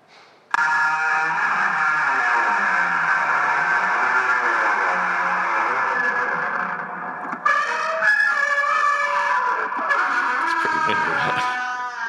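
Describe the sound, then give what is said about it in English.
Loud, heavily distorted sampled noises, slowed down and put through distortion, a dense grinding drone with a whining, engine-like tone, running steadily for about twelve seconds and shifting abruptly partway through. No one speaks. “Oh no, here's, here's a video of some of the noises. This, this is it like slow down and put through distortion now.”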